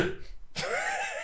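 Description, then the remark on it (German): A single sudden sneeze bursts out sharply after a short quiet breathy moment, trailing into a brief wavering voiced sound. “Gesundheit.”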